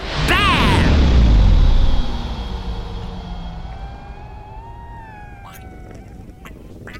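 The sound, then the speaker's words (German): A spaceship brakes to a stop: a loud roaring burst with swooping, falling tones, then a fading engine whine that glides and settles over a low rumble. No one speaks. “Also, anschnallen, Füße auf die Hyperstopper. Wir bremsen ab in 3, 2, 1.”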